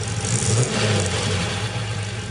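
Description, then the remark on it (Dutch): A 3.5-liter V8 car engine runs loud with a deep, throaty rumble, its steady low drone briefly swelling as if revved, with no voices over it. “V8-motor, hè? Zeker, 3,5 liter.”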